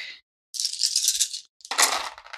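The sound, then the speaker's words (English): Dice rolled for a Comtech check in the Alien RPG rattle and clatter in two bursts: a sustained shaking rattle followed by a sharper scatter of clicks as they tumble, with a brief rattle at the very start and no voices. The roll gives no successes. “Wow, all them dice and no successes.”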